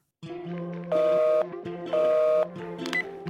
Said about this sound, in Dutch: Dus spreek wat in na de piep